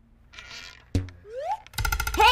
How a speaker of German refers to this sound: Hey, bist du verrückt geworden? Der Pfeil hätte mich fast getroffen.